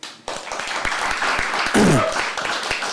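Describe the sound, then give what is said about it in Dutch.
An audience breaks into steady applause for guest filmmaker and television maker Willem Bos, dense overlapping claps filling the whole stretch, with a brief louder swell and a few cheering voices partway through. “En het is Willem Bos, dus graag een applaus.”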